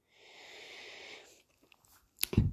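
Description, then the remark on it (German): A breathy inhale, then a few small mouth clicks and a quick wet gulp of a swallow near the end, from a person with a sore throat, with no talking. “Und ich muss so wie gerade die ganze Zeit schlucken und es nervt irgendwie.”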